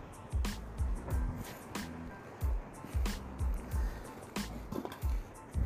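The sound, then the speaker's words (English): Lake water slaps against the shore in a steady run of low thuds, each with a brief splashy hiss, repeating about once a second with no one speaking. “As I stand by the lake listening to the water crashing on the shoreline”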